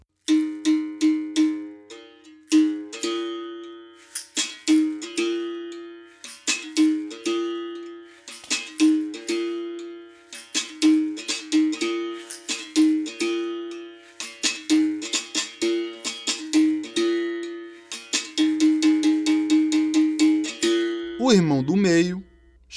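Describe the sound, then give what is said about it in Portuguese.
A low-pitched gunga berimbau, also called berraboi, the lowest-pitched musical bow of the capoeira berimbau family, plays a steady rhythmic pattern of twangy struck-string notes with buzzy rattles, fairly loud, ending in a wavering, bending tone. “O irmão mais velho chama Gunga, ou Berraboi, e fala assim”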